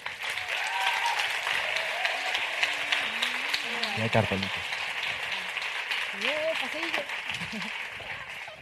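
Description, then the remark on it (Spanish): Sustained applause from an audience welcoming the creators and cast of the new Movistar Plus series Vida Perfecta onto the stage, a dense steady wash of clapping lasting several seconds, with some cheering voices rising over it. “Así que recibamos en este escenario con un fuerte aplauso a Leticia Dolera, Manuel Burque, a Isa Villagrán y Celia Freijeiro.”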